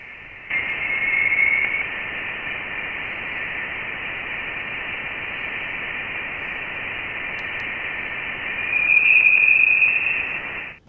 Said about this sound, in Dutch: dat is het eerste geluid van interstellaire plasma in de heliosfeer. Dus buiten ons zonnestelsel, opgenomen door de Voyager 1